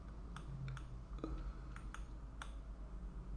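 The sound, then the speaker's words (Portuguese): A handful of light, irregular keyboard key clicks, soft, spaced unevenly over a low steady background hum, with no one talking, as someone types the word "encerrado" in capital letters. “Eu vou botar encerrado bem em maiúscula e vamos encerrar.”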